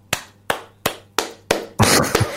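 Five sharp, evenly spaced hand claps ring out one by one, then the clapping thickens into a loud, dense burst of applause for a co-host on finishing last year's prediction game. No one speaks.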